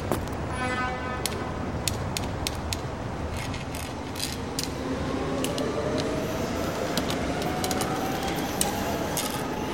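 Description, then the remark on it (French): A metro train rumbles steadily beneath the ground under a large open area paved with small cobblestones, a dense low roar with a rising whine and scattered metallic clicks and rattles, sustained throughout with no voices. “En tout cas, déjà, il y a le métro en dessous.”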